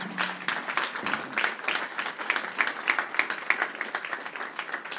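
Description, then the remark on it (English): An audience at a baptism event applauds steadily, many hands clapping in a dense, sustained patter that carries on throughout at a moderate, even level, with no talking over it. “So let's put our hands together”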